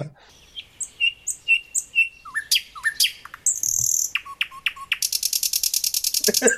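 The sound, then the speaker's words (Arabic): A rapid sequence of varied bird calls: repeated chirps and whistled notes, then a buzzy burst and a fast, rattling trill at the end, close and fairly loud with no talking. “اغرب اصوات عصافير سمعتها آه.”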